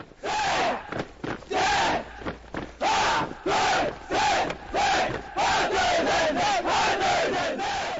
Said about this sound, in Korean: 함성 소리가 하늘을 찌른다.